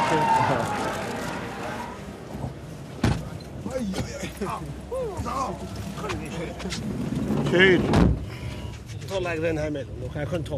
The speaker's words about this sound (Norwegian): Bilen raser av gårde med politieskorte. Martin Jonsrud Sundby, som tok femteplassen på dagens tremil, er også med.